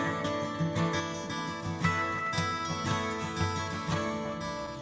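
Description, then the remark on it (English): A gospel song plays at full volume, with rich sustained harmonies over a steady, pulsing bass line and regular rhythmic accents, filling the whole stretch with no talking. “so let me cue the music can you hear”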